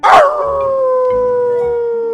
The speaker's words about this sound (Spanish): El cuento de hoy se llama El perro sin aullido. Había una vez un perro que era el mejor aullando del mundo.